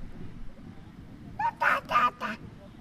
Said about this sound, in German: Guck mal, die Ente ist ganz dicht, du kannst die ganz gut sehen.